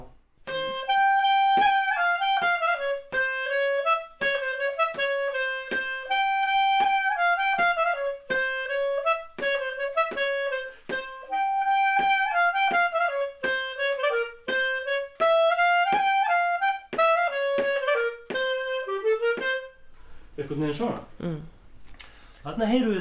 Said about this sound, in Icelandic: þá myndu þeir leika samsetningu sem þeir kalla Kalamatianos sem er þá þrýr pluss tveir pluss tveir og í Makedóniu þá